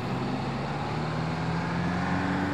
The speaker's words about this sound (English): Last we heard, the truck filled with crates of dinosaur bones was leaving Montana.